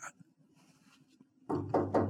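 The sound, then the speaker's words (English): Three quick knuckle knocks on a wooden surface, close and fairly loud, coming in a brisk rhythm after a quiet stretch of faint background noise. “knock on wood”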